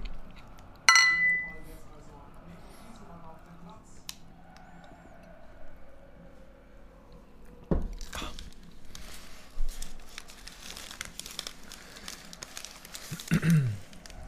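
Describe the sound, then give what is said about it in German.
Glasses clink together once in a toast near the start, while people watch a football match, a bright ringing chime that fades quickly, followed by low background talk and occasional handling noises. “Ja, Prost erstmal.”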